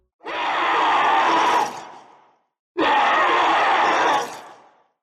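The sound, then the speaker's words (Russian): Two loud, harsh creature screams from a horror video game, raspy, each lasting over a second before trailing off, separated by a brief silence. No one speaks. “Помните звуки некроморфов из Dead Space? Сейчас напомним, только осторожно, они реально страшновато орут.”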